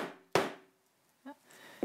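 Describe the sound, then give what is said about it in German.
A hammer taps a rivet on a metal plate: one sharp, loud strike that rings briefly with a metallic tone, then a quieter knock and a second strike at the end. “Oh Gott, wie hält die denn den Hammer fest?”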